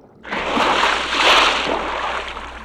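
A broad, rushing splash of water as someone surfaces while swimming breaks out suddenly and keeps churning and sloshing steadily for a couple of seconds, swelling once midway before easing slightly.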